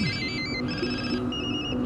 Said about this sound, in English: They go to so many houses, I think in Mexico, and we're still sitting in Mexico, and phones don't stop ringing.